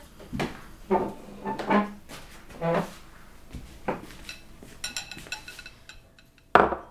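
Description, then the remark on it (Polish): Cups and small plates clink as they are set down on a table one after another for cake and coffee, several sharp ceramic knocks spread unevenly, with a final louder clatter at the end. “Mamo, podasz filiżanki i talerzyki?”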